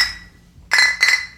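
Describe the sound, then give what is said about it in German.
Glasses clink together, a ringing tap fading out, followed by two more bright clinks in quick succession, as in a toast with beer glasses. “Prost.”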